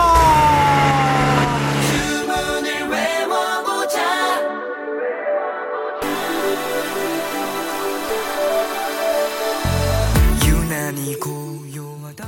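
A K-pop track plays with bright, siren-like synth tones over a pulsing beat, dropping its bass out for a few seconds before the full mix returns at steady volume.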